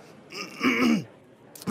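A single gruff throat clearing, fairly loud, lasting about half a second before a brief pause and the start of another vocal sound.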